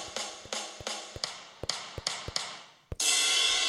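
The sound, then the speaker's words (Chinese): About nine quick, sharp finger taps on a mobile phone playing a phone band app as accompaniment, each followed by a ringing, fading tone from the device, ending in a sudden burst of loud, steady noise. No talking. “好，刚、嗯、好像还听到手指敲打手机的声音。”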